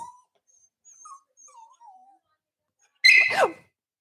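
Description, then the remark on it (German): A small dog whimpers in soft, high, thin squeaks, then lets out one louder, strained squeal near the end. No one speaks. “Guck mal hier ihr die kleine Quietschmaus gehört?”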